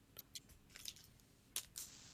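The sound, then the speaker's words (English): Wet chewing on soft, gummy Gushers fruit snacks, with a handful of squishy, smacking bites spread unevenly over a couple of seconds and no talking. “are you eating? Gushers.”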